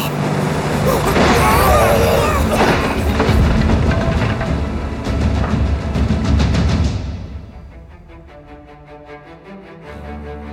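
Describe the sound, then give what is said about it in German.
A massive ocean wave crashes in a loud, sustained roar of rushing water lasting several seconds, then subsides, leaving a quieter low, tonal drone. “Aus der Mitte des Horizonts baute sich eine riesige Welle auf.”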